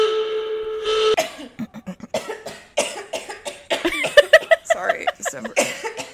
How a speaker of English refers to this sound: I'm just sick. Oh. but like I'm fine. That's just gonna be Jack's problem to edit out me coughing.